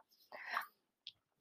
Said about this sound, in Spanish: Pero disculpen el ruido de fondo, pero estoy dándoles golosinas a mis perros.